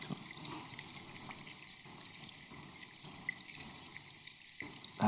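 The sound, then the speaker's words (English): Recorded with hydrophones, underwater air bubbles bursting from drifting lumps of melting glacier ice, releasing air trapped for 10,000 years, make a steady, dense crackle of tiny pops and clicks, a continuous fizzing hiss with brighter high-pitched, bird-like ticks scattered throughout and no voices. “This is basically 10,000 year old air that's been trapped in the glacier, slowly coming out of the, of the, the lumps of ice”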